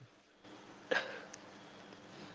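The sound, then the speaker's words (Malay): A single sharp, fairly loud hiccup jumps out of a quiet background, followed by a faint small click a moment later. “aku sedu dah.”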